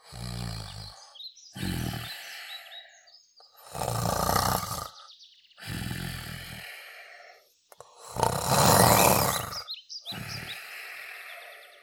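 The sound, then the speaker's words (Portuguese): A lion sleeping in the forest breathes heavily, letting out about five deep, rasping growls in a slow, steady rhythm, loud, with short silences between them and no voices. “Certo dia, estava um leão a dormir à cesta na floresta”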